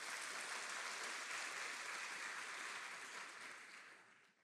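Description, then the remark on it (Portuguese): A church audience applauds Jesus loudly after a prayer, a dense, sustained wash of many hands clapping at once that holds steady before tapering off toward the end. “Se você crê na sua oração, aplauda Jesus bem forte.”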